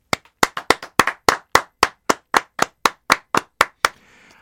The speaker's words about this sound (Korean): 김나영 PD에게 박수를 이 자리를 빌어서 오랜만에 보내고 싶습니다.